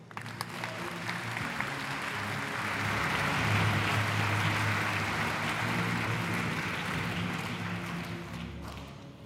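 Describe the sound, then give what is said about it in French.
Sustained audience applause welcoming a speaker to a lecture, a dense crackle of many hands clapping that swells to a peak midway and then gradually tapers off, with no voices over it. “Je vous demande d'accueillir et d'applaudir”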